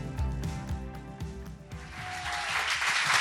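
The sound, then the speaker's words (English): Audience applause greeting a speaker's entrance swells up over the second half, a dense wash of clapping rising over steady, rhythmic music that plays throughout and grows louder toward the end. “It's great entrance that's applause.”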